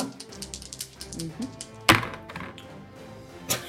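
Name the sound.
dice being rolled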